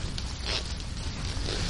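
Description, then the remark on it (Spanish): A zipper rasps open or shut on a small belt pouch as an item is stowed in it, with short scratchy pulls running continuously for under two seconds, no voices present. “es lo que te comentaba antes, ¿no? que la guardo en, mi cartuchera.”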